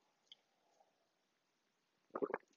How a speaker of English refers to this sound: Um, coffee sip.